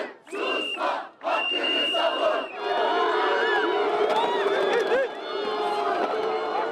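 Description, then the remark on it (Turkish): A large crowd of students protesting in Turkey over a student's death in a poorly maintained dormitory elevator chants loudly in short rhythmic bursts, then merges into a sustained, dense roar of many raised voices shouting together. “Biz okumaya geldik, ölmeye gelmedik diyerek onlar da arkadaşlarının hem yasını tuttular hem de bundan sonra böyle felaketler, acılar, cinayetler olmasın diye seslerini yükselttiler.”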